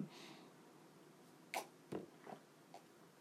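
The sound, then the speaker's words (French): Someone takes a sip of a drink: a few short, soft slurping and swallowing sounds spaced about half a second apart, with no talking. “excusez, je prenais une gorgée”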